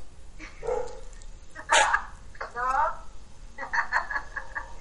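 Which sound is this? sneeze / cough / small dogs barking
small dogs barking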